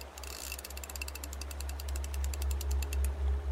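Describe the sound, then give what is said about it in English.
Rapid, evenly spaced mechanical clicking of a fishing reel's ratchet spinning as a fisherman casts his line into a river at the Court Street Bridge, continuing steadily for several seconds over a low, constant hum. “The man cast out his line and snared something horrible.”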